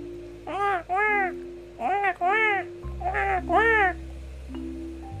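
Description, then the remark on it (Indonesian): A crow caws six times in three quick pairs, loud, its harsh calls rising and falling over a soft, steady musical backing. “Ternyata si Gagak, Gagak sedang minum si si Gagak sedang minum air.”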